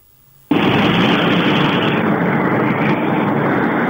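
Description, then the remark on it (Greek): A toilet flushes: after a brief quiet moment, a loud, abrupt rush of water bursts in and keeps roaring steadily, with no voices over it. “Το ρούφιξ το καζανάκι.”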